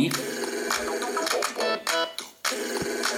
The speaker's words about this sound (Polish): W takim razie zadzwonię sobie ze swojego standardowego telefonu na, na Motorola. Zobaczymy jak na Motorola się... Połączenie. To jest domyślny dzwonek Motorola.